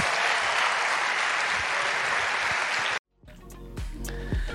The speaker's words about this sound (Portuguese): Aplauda o Senhor, Deus abençoe. Obrigado.